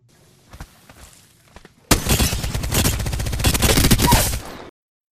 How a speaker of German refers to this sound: Äh, können wir hier gleich mal einspielen. Ich finde, da gibt es äh, ein ziemlich cooles charakteristisches Sounddesign, wenn die Schilde des Gegners zerbersten und generell wie die Hitmarker klingen.